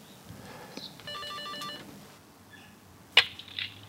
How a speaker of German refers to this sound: So, mal gucken, ob ich hier fündig werde. Karl Wendlinger steht an der Klingel. Dann mal los.